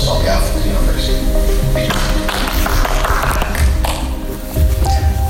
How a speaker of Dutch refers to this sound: Het applaus is mager. Maar dat is ook niet zo gek als je weet dat er maar vier bezoekers in de zaal zitten.